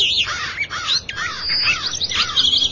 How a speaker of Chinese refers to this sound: 但是鸟的叫声渐渐大了起来， 有长声，有短声，有尖叫，有嗡嗡的闷叫，一片嘈杂。